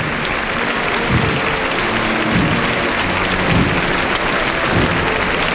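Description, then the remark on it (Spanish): A large crowd applauds the army and its flag, clapping steadily and continuously in a dense wash of applause that stays loud and unbroken throughout, with swells of intensity every second or so and no one speaking. “el aplauso prolongado.”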